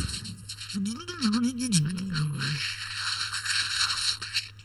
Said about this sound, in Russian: А давайте погрузимся еще глубже и вспомним, как звучали программы, записанные на кассеты. Вот. А вот это я помню.